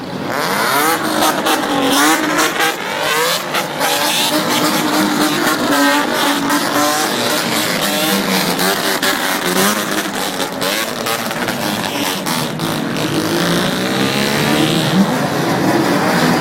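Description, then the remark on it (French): A modified Bosozoku car engine revved to make music, loud and continuous, its pitch swooping up and down in rhythmic, almost melodic sweeps with a raspy exhaust edge; no one speaks. “Ce qui est assez fou, c'est que ça s'accompagne, c'est vraiment une culture à part entière ça s'accompagne euh, d'une discipline que, qu'on n'a pas l'habitude de voir, qui consiste à faire de la musique avec euh, la voiture.”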